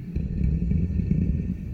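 A deep, rumbling creature snore rolls on steadily, low and throaty with a rough, growling texture, echoing through a cave, with no voices present.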